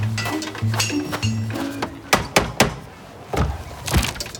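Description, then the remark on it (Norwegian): A locked door handle is tried several times, producing sharp metallic rattles and clunks at irregular intervals, after a soft humming tone at the start. “Døren er låst.”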